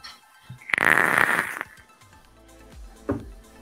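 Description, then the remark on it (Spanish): A vape coil sizzles and crackles loudly during a single draw of strawberry e-liquid lasting about a second, followed by quieter rustling and a soft low thud. “un strawberry de, de El Elsein, resistencia de Rancés. Nada más escuchen cómo va esto.”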